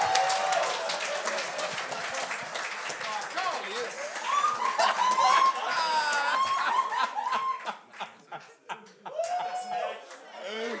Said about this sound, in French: C'est le dernier invité de la soirée. On l'aime, on l'adore. Faites un ton d'applaudissements pour Gab Côté!